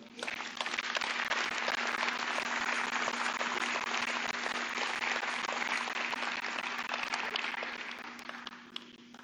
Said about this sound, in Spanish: De perdida, dale un aplauso al Señor.